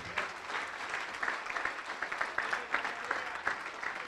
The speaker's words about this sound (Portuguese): Vamos aplaudir ao nome do Senhor.